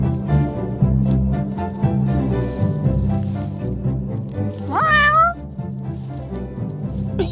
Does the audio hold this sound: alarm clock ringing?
no